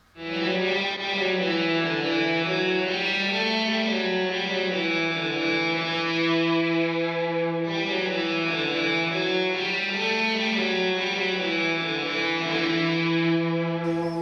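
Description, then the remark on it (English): A heavily fuzzed Danelectro electric guitar, played through a Pep Box fuzz pedal and a Vox amp, sustains thick, buzzing chords, washed in a spacious 80s-style digital reverb from an LXP1 that lingers between changes. It plays alone and loud, with no voices. “Let's listen to just the electric guitar part, which is the Dano, the Pep Box, the Vox, and the LXP1 alone.”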